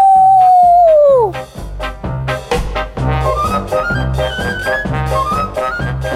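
A single long wolf-like howl, loud, holds steady then slides downward for about a second before rhythmic music with a thumping beat takes over.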